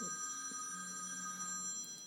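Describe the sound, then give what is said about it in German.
A mobile phone rings with a steady, sustained electronic tone that continues throughout, heard fairly faintly in the background with no one talking. “das ist jetzt Ihr, das ist Ihr, Ihr, ist Ihr Telefon. Handy?”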